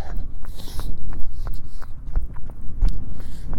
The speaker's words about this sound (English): So, going to get the boys out. That's the horses. going to get the girls out. That's the goats and the llama. Llama's name is Noodles.